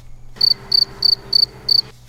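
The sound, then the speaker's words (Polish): Crickets chirping in five evenly spaced, high-pitched trilling bursts over a faint steady background hum, lasting about two seconds with no talking. “Ale musimy zrobić coś takiego w nadkaście, że jak jest chwila ciszy, co nie? To dajemy świersze takie.”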